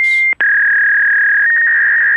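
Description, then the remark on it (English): Fax machine transmission tones: a loud, steady high-pitched electronic whine that cuts out for a split second, then resumes as one sustained tone with a slight warble toward the end. No one speaks. “Okay, i send cosmic fax.”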